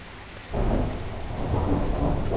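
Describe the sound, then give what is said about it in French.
Heavy rain of the rainy season pours steadily while a deep rumble of thunder swells in after a brief quieter start, the low roar building and rolling on to the end with no voices. “Voilà notre saison des pluies.”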